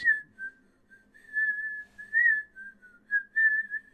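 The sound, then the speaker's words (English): Someone upstairs whistles a wandering melody in several connected phrases, the pure tone rising and dipping in pitch with short breaks between notes, moderately quiet and heard on its own without talking. “And that's when you hear some whistling coming from upstairs.”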